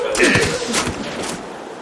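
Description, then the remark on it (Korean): A ragged volley of gunfire: several sharp, loud shots crack out in quick succession, then a few more spaced bursts, with a murmur of voices and noise underneath. “총소리가 그치자 인민군들이 손양원 목사를 비롯해서 앞쪽에 있던 사람들을 과수원 쪽으로 끌고 갔다”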